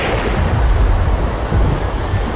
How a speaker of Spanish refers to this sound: Entretanto la tormenta arrecia y los marineros corremos de un lado a otro de la cubierta desconcertados.